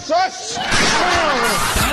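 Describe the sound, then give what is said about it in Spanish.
A loud, heavy slam as a door is forced down, followed by a sustained rush of crashing noise with raised voices mixed in. “fue el escándalo y el enojo que hasta puertas tumbaron.”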